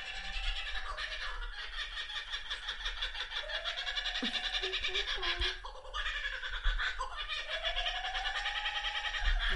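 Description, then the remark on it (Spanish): Several laughing kookaburras break into a loud, raucous chorus of cackling, laugh-like calls that rise and tumble over one another without pause for the full stretch, with no talking. “Les vamos a poner así como 10 segundos de cómo se ríen los burras para que los que no lo han escuchado puedan escucharlo.”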